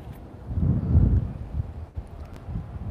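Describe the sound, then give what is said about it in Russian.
Wind buffets a microphone outdoors at a scenic spot in low, rumbling gusts, swelling loudly around the middle and continuing as a steady blustery roar with no voices. “Ну, столько у меня интересных идей, и ветер задувает, да?”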